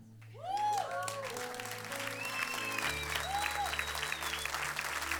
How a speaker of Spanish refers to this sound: Si le vas a dar un aplauso, dáselo bien fuerte.